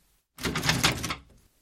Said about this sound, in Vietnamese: Cửa vừa mở, anh xông vào bên trong, mở tung cửa phòng.